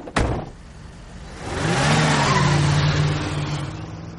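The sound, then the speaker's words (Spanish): A sharp thump like a car door shutting, then an engine starts and revs as a woman gets in and drives the car away, its motor rising and holding steady, with no voices. “Ella monta y se va.”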